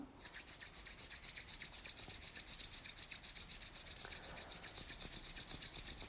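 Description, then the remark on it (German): Brisk, steady rubbing of palms together in front of the heart during a guided exercise, a continuous dry swishing hiss pulsing back and forth in a quick even rhythm of about eight strokes per second, with no talking. “vor dem Herzen zusammen und reibt die Handflächen aneinander.”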